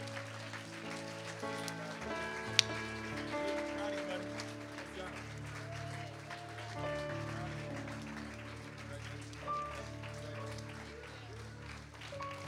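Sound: audience applause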